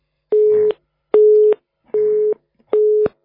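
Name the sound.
telephone busy signal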